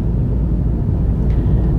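A steady, loud low rumble fills the inside of a moving car on a nearly two-hour drive back from a day in Venhuizen, West-Friesland, the engine and road noise droning evenly throughout with no voices.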